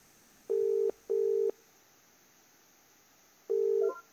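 A telephone ringing tone heard down the line: a clear, steady double burst, a pause of about two seconds, then the next burst starting. No one speaks.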